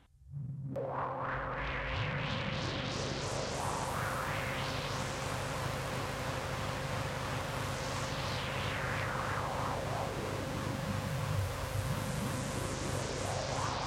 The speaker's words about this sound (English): lent me a 70s synth of some kind that I made white noise with.